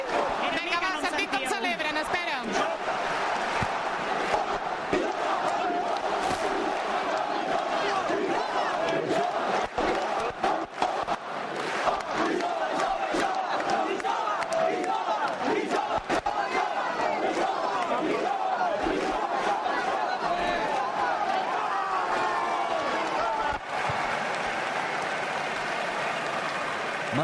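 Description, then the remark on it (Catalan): A large crowd roars and cheers continuously, dense overlapping shouts and celebratory cries with little letup, a loud wall of jubilant voices with scattered clapping, at the celebration of the Colla Jove. “a la celebració de la colla jove conscient de les actuacions rivals de la ciutat.”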